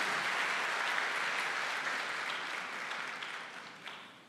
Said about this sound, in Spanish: Dele fuerte ese aplauso al Señor y colóquese en pie.